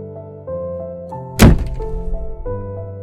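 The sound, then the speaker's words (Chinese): A single hard slam of a bedroom door, a loud heavy bang that booms briefly and fades, heard over a steady background of soft sustained music. “然后我就用力的把我的门摔了一下”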